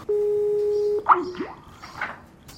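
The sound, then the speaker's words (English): A Skype call to an asylum office dropping and redialing: a steady electronic hum for about a second, then a quick run of bright, warbling beeps that sweep up and down, clear with no voices. “That's the sound of it dropping, redialing.”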